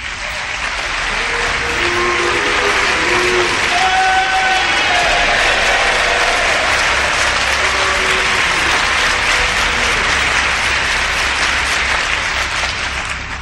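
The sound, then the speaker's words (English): An audience breaks into loud, sustained applause lasting about thirteen seconds, with scattered booing voices rising through the dense clapping, mostly in the first half. “Yes, I heard both the applause and the boos.”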